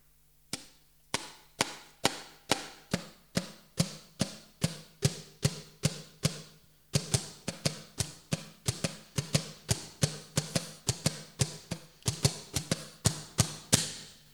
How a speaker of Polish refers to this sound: Drugi koniec trzyma się w dłoni, a wolną ręką pobudza taśmę do brzmienia poprzez uderzenie w nią wyprostowanym palcem.